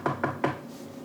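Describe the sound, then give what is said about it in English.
A woman knocks on wood for superstition: three quick, evenly spaced knocks, each a short hollow rap, followed by quiet with no voices. “She's knocking on wood as we talk about superstition.”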